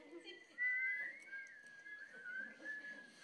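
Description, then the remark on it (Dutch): Several children whistle at once, a wavering cluster of overlapping high tones sliding around one pitch for a few seconds, unsteady and breathy, with faint murmuring underneath. “Wie van jullie kan er al fluiten? Laat maar eens horen.”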